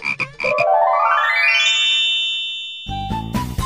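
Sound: frog croaking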